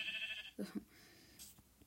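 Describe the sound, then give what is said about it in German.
A single short, fairly quiet sheep bleat, framed by a faint high-pitched tone just before it and a brief high chirp shortly after, with no talking, as the sheep is being pushed into water. “Ich wollte gerade das Schaf ins Wasser schubsen.”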